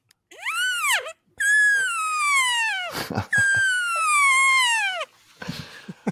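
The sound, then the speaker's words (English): A voice imitates an elk bugle: three high, squealing whistled calls, a short rising-falling one, then two long sustained ones sliding downward, loud, followed by brief rustling noise. “has got the whole family and neighborhood on elk warning. He's giving them calls.”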